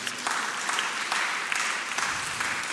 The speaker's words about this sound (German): Applaus, einfach für das, was Gott getan hat.